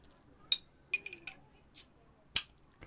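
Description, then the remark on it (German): A beer bottle being opened: a few light glassy clinks and taps as it's handled, a brief hiss, then a sharp crack as the cap comes off. No talking. “Ich mache mal ein Bier auf.”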